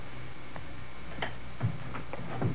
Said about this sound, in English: I wish these stairs didn't didn't squeak so.